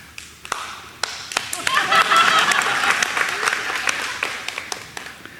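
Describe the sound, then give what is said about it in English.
A room full of people bursts into spontaneous applause for a job well done at communion, starting with a few scattered claps, swelling into steady clapping, then thinning out toward the end. “That was very spontaneous applause from the people here.”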